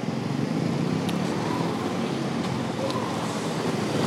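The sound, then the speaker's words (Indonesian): Steady roar of wind and road noise while riding a motorcycle through traffic to the office on a hot midday, a continuous rumble with a few faint higher clicks and whooshes passing by. “menuju kantor dengan menggunakan motor”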